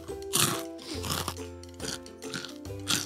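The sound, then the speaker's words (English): Loud crunching of crispy nacho cheese chips being chewed, with repeated crackly bites in a steady rhythm and no talking. “I couldn't hear you over my crunches.”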